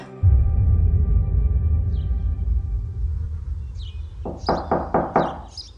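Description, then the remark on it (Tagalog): A low rumbling drone fills the background, then five quick, firm knocks on a door land in a steady rhythm near the end, fairly loud. “Pasok, bukas ang pintuan.”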